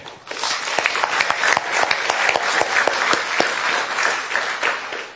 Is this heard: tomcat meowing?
no